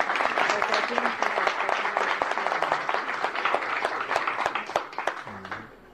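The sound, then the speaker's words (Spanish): Sustained audience applause for seven contestants at a China–Colombia event, a dense steady wash of many hands clapping at once, loud and even throughout, with a few louder individual claps standing out and a faint voice near the end. “Y muchas felicitaciones y con más, más aplausos para estos siete concursantes.”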